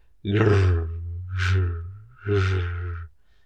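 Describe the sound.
A human voice imitates the grunting of a Tasmanian tiger (thylacine): three low, guttural, breathy grunts in quick succession, fairly loud, with no other speech.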